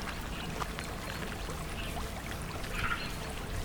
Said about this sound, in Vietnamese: ở phía xa có tiếng suối chảy róc rách